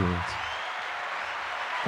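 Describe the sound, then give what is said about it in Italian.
A steady wash of applause, many hands clapping at once in a dense, even hiss that holds for about two seconds, with a brief voice murmur at the start. “Sì, certo, voglio l'applauso.”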